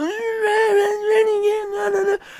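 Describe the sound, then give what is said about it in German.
A voice imitates a whining child with one drawn-out, nasal, high-pitched whine that holds a steady pitch for about two seconds before cutting off abruptly, loud. “Dann wurde der rausgeschmissen und dann hat er angefangen zu quengeln wie ein kleiner Junge.”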